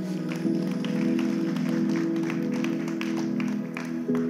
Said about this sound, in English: Let's give the Lord a hand clap of praise.